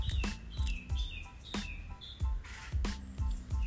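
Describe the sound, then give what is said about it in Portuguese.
A small bird chirps repeatedly in quick, high-pitched bursts in Venice, with irregular spacing over a soft outdoor background of low thumps and rustle. “Ah, esse foi um passarinho.”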